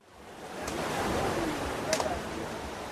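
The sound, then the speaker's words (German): A steady, broad wash of surf rolls in and swells gently on the sea shore near Odessa at 9 a.m., with a couple of brief brighter splashes; no one speaks, just the soft, continuous roar of waves on the shore. “9 Uhr früh am Meer bei Odessa.”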